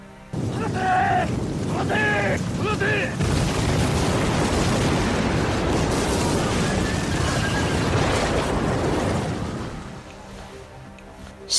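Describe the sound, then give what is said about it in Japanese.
Naval cannon fire from a warship armed with the latest cannons bought from Europe and America erupts into a loud, continuous barrage of booming explosions lasting several seconds, in a surprise attack from the sea by Takasugi Shinsaku and the Kiheitai, preceded by a few brief high, wavering calls, then fading to a low rumble. “軍艦に乗った高杉晋作と騎兵隊がこっそり接近しますこの軍艦には欧米から購入した最新鋭の大砲が積んであり海から奇襲攻撃”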